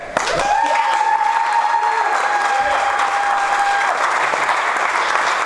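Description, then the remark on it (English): An audience at St. Paul's claps steadily and loudly for several seconds on a special Sunday morning, a dense, even wash of applause, with a thin sustained tone ringing faintly through the first half. “I had to tell 845 to applaud.”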